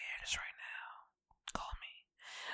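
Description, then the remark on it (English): A man whispers, breathy and hushed, in three short bursts separated by brief pauses. “I wanted to whisper that to y'all.”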